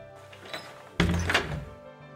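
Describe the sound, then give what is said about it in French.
A door shuts with a solid thunk about halfway through, preceded by a soft creak or rustle, then a brief rattle as it settles. Fairly loud, with no talking. “Et pire que ça, durant cette plaie de l'obscurité, les Égyptiens entendaient de drôles de bruits, des portes qui s'ouvraient et qui se refermaient.”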